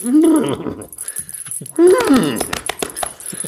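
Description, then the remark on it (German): A person imitates the whinny of a rearing horse with a rider on its back, two shrill, wavering vocal cries in quick succession, fairly loud, with some breathy noise trailing after. “Da sitzt auch ein Mensch drauf und jetzt geht das Pferd hoch und macht.”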